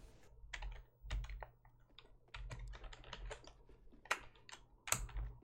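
A computer keyboard is pounded hard and fast, a dense, close clatter of keystrokes running without pause, with a few louder slams standing out. A low hum sits underneath, and no one speaks.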